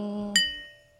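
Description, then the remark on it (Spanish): A single bright clink of glasses touching in a toast, ringing briefly and fading over a low, steady background hum, with no talking. “Salud. Saludita, amigos.”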